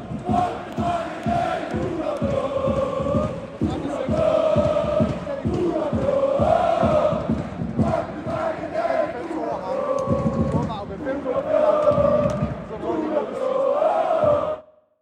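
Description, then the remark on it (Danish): A large football crowd at Brøndby Stadion during a Brøndby match chants in unison, a loud, sustained roar of voices rising and falling in a rhythmic, sing-song melody that carries on without a break for the whole stretch. “Ja du har været øh, på Brøndby Stadion her. Vi kan lige høre et, et lille klip, hvor lige at komme lidt i stemning.”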